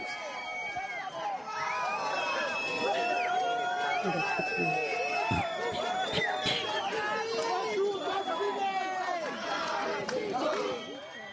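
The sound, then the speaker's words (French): A large crowd boos and jeers as the minister comes out, a dense, continuous wall of overlapping voices holding long drawn-out tones, steady and loud for the whole stretch without letting up. “Vous avez entendu ces euh, huées”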